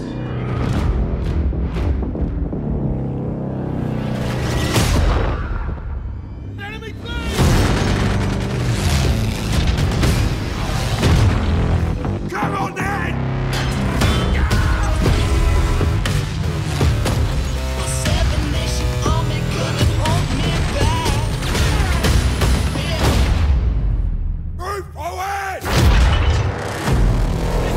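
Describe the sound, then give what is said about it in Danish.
Loud, dense audio from the Battlefield 1 war game trailer: booming explosions and heavy impacts crash over driving music almost nonstop for nearly half a minute, with brief drops before bursting back in. “Men øh, nu skal vi altså høre Battlefield 1-traileren.”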